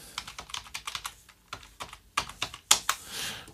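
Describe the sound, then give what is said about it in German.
Computer keyboard typing and clicking as someone goes to their web page to check comments, a quick, uneven run of sharp key clicks with a few louder, harder taps toward the end, heard on its own without any voices. “Klick, klick, klick, klick, plack, plack, plack, plack. So, da dalelele, wo ist er denn, der Bobson Bob? Klicke ich da mal, klicke ich hier.”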